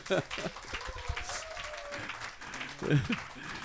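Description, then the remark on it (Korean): Steady applause from an audience welcoming five Kaesong Industrial Complex business owners, representing 123 companies, on their first visit to the United States. A dense crackle of many hands clapping at once for several seconds, with a voice speaking over it at the start and again near the end. “그래서 이분들과 같이 한번 개성공단 이야기를 하려고 하는데 큰 박수로 다시 한번 좀 우리 예.”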